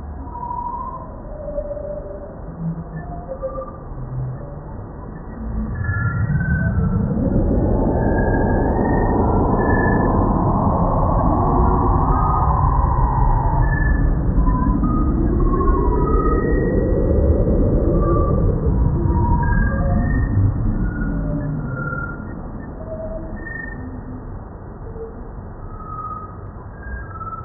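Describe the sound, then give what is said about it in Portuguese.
Sonified astronomical image data of the Pillars of Creation: scattered twinkling electronic pings over a soft hiss, swelling into a loud, dense, shifting drone of layered synthetic tones for about fifteen seconds before thinning out again. “coloca aqui a gente o som do Pilares da Criação.”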